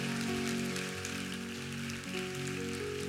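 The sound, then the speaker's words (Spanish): An audience gives God a loud round of applause, clapping loudly and steadily in a dense crackling wave, with sustained organ or keyboard chords holding underneath throughout. “El que no lo crea no aplauda, pero si usted cree que usted tiene la bendición de Abraham en Cristo Jesús, dele un aplauso a Dios bien fuerte.”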